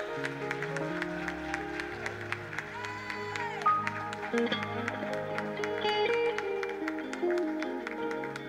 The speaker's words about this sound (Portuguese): Aplauda o Senhor e adore a Ele, aleluia.